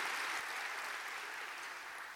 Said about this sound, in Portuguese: Se você crê, dá um aplauso, mas bem forte ao Senhor. Bem forte. Aleluia.